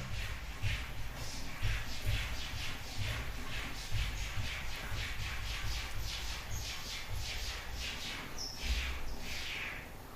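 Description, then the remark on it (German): A cat rubbing against the mirror of a wardrobe makes a quick, steady run of short squeaky swipes, roughly two per second, with a low rumble underneath and no voices. “Das klingt so, als würde er den Spiegel sauber machen.”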